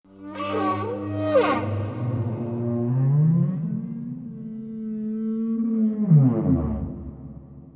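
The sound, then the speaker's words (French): A blue whale calls with long, low moaning tones that slide up and down, ending in a deep descending groan, heard alone with a slightly echoing, underwater quality. “Concernant la baleine bleue,”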